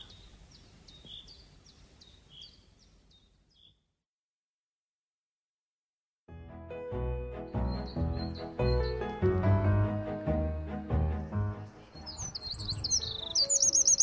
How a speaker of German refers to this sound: Hey, wer weckt mich denn da so früh am Morgen? Mensch, du Vogel, kannst du denn nicht mal leiser zwitschern?